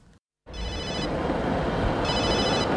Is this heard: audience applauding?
no